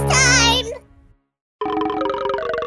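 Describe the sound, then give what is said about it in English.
A warbling, wavering tone cuts off into a short silence, then a bright, pulsing phone ringtone starts up loud, repeating quickly and steadily until the end. “Hold on, I'm getting a call on the funny phone.”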